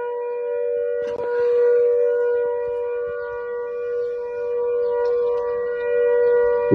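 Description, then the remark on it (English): A loud, steady old New Zealand air raid siren wails continuously, its sustained tone holding level throughout with a faint rise and fall, sounding across open air with no voices present. “That, that sound there, that is the old air raid sound that we used to have here in New Zealand.”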